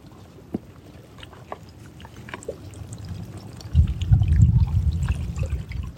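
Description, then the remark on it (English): Water of a big inland sea laps and sloshes, with small splashes and trickles at first, then a fuller, louder wash of waves rolling in during the second half. “feel the energy of the water moving right now.”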